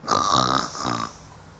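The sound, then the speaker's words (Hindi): A person imitates a lion's roar with a rough, growling vocal burst in two surges, loud and gravelly, lasting about a second before fading out. “अब हमारा ये टॉर्टॉइज़ अपने शहर से बाहर निकला और धीमे धीमे चलने लगा और उसको फिर से दहाड़ सुनाई पड़ी”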